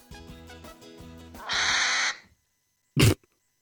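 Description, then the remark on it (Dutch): An agitated hedgehog, angry or afraid, loud: a run of rhythmic, throaty pulsing calls, then a harsh sustained hiss, a short pause, and one abrupt huffing snort. “ja, het is, het, is of, het is of woede, ja. of het is angst.”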